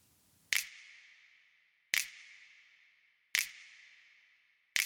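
Four sharp finger snaps, evenly spaced about a second and a half apart, each trailing off into a long, bright reverb tail added through a send to a prepared reverb, fading before the next snap. No voices.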